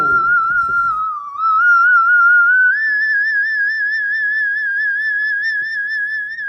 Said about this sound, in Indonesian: ini suara apa ini suara apa gue nengok ke … ternyata … lagi whistle voice